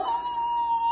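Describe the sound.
A voice imitates a wolf howl, holding one steady, fairly loud note for about a second over bright background music.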